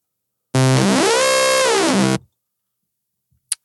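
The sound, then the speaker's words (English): A loud, buzzy synthesized saw-wave tone with hard-sync character, its harmonics sweeping up then back down over about a second and a half, followed by a brief click. “So what you're basically doing there is modulating a saw wave with another saw wave.”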